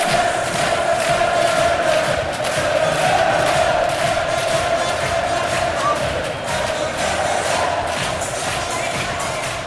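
A large football stadium crowd at the King Power chants the "dilly ding dilly dong" chant in unison, a dense, steady roar of many voices with a rhythmic sung pulse that stays loud throughout, punctuated by occasional shouts.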